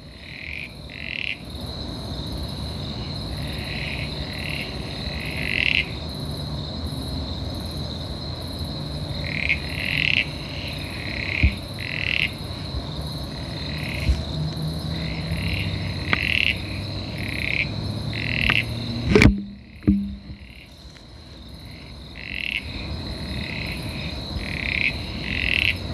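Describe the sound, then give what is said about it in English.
A chorus of frogs calls steadily from thick grass outdoors, with repeated short croaking pulses overlapping and a continuous high buzzing hum underneath, recorded for about 20 seconds to identify the species with a frog identification app. No one speaks. “we have our Frog ID app. Callum is busting it out right now”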